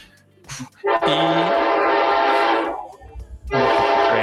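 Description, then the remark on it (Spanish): A loud train horn blares in two long blasts during a call, from a home near the train tracks, the first lasting nearly two seconds and the second starting just after a brief pause, with rumbling rail noise underneath. “Yo vivo cerca del tren.”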